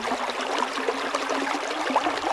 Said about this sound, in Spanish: el camino, sin embargo, no les llevó muy lejos, porque al poco tiempo oyeron el ensordecedor ruido de una formidable corriente de agua.